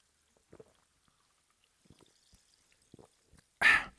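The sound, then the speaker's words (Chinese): Faint scattered clicks and light taps, then a short, loud, hissing gush of sparkling water being poured into a glass for a toast, fizzing brightly for a moment at the very end. No one speaks. “在今天的开始之前的时候，还是用气泡水，给大家干几杯哦，干几杯哦。”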